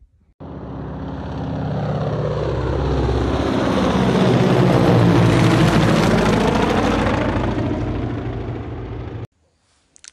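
A rescue helicopter, part of an airlift evacuating stranded Israelis, passes overhead, its rotor thump and engine roar swelling to a peak midway, then fading as it moves off, with no talking.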